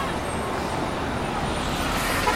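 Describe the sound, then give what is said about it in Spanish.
A steady wash of city street traffic, with the broad rumble of cars and buses rolling past at an even, moderately loud level and no clear voices standing out. “Una ciudad.”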